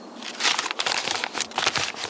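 Steady crinkling of a piece of paper with writing on it, picked up from a rooftop terrace and handled, a continuous dry rustle with small crackly bursts throughout, no voices.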